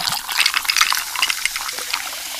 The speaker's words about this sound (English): I'm pouring it over some ice. Hear all those deliciously fizzy Pepsi bubbles? Those, my friends, are not ordinary bubbles. Those are zero sugar bubbles because Pepsi Zero Sugar has zero sugar.